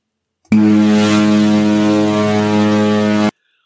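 A single loud, steady ship's horn blast, sounded by pulling a rope attached to the boat's horn at the bow, low-pitched and rich in harmonics, holding for nearly three seconds before cutting off abruptly. No voices accompany it.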